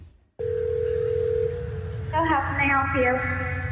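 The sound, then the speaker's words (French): A steady telephone tone hums for a couple of seconds as Google Assistant calls a hair salon to book an appointment, then a person starts talking on the line as the tone fades beneath the voice. “Il appelle et cherche un créneau disponible pour une cliente pour le 3 mai.”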